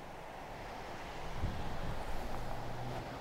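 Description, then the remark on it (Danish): A steady, broad rush of sea surf and wind on a beach by the dikes of southernmost Falster, Denmark, with a storm approaching, swelling slightly in the middle, with a faint low drone underneath toward the end. No one speaks. “Man kan måske høre en færge, der tuder lidt i baggrunden, og måske kan man også høre havet, der suser, eller vinden, der blæser en lille smule.”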